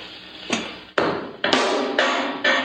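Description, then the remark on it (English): A bright, percussive tap repeats through the repeat echo of a time delay unit, each hit returning roughly every half second with a hissy, sustained wash that overlaps the next. No one speaks. “This is a time delay unit. And what does that do? It's an echo. It's a repeat echo.”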